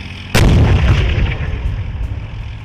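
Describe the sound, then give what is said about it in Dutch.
A single thunderous shot from the 120 mm cannon of a 60-ton, 11-metre-long battle tank crewed by four goes off with a sharp blast, followed by a long, deep rumbling echo that slowly fades with no voices present. “het is 11 meter lang, hypermodern en het kan op 4 kilometer afstand de vijand bestrijden met een 120 mm kanon.”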